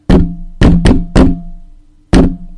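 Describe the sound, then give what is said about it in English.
Five heavy, resonant knocks on a wooden log wall, demonstrating beating sounds on the outside of a log home, struck in an uneven pattern with a long pause before the last, each thud ringing briefly before fading. No voices. “You would think that would be the end of it, but that night the bells began, you know, hearing some beating sounds on the outside of their log home.”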